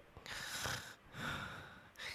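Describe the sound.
A voice imitates a man's soft, baby-like snoring: two gentle, breathy snore sounds in a slow rhythm, quiet, with no talking.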